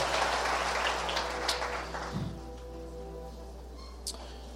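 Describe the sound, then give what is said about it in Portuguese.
An audience claps after an opening prayer, a dense, steady wash of applause that gradually thins out and fades as people are told to sit down, leaving a low hum with a few scattered claps near the end. “Dê um aplauso bem forte, pode se assentar, fica à vontade.”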